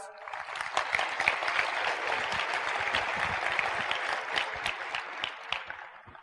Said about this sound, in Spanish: Así es que yo siempre le doy las gracias a ellos y un fuerte aplauso para mis padres.